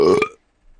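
A single short, loud burp with a rough, voiced rumble that cuts off after about a third of a second, followed by near silence and a faint low murmur.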